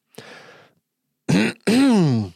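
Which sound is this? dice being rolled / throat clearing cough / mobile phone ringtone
throat clearing cough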